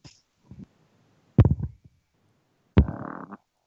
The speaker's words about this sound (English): oh, who farted? farted. that was amazing.